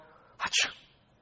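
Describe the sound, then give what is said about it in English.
A single sneeze: a quick breathy intake followed by a sharp, loud burst, then a short fading breath against a quiet background, with no one speaking. “bless you.”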